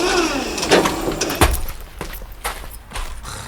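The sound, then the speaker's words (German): Painted stage scenery flats topple over while a forklift is being driven, in a rough series of loud wooden bangs and clatters, with one heavy crash in the middle and smaller knocks trailing off afterward. “Achtung, Achtung! Die Kulissen verlieren das Gleichgewicht.”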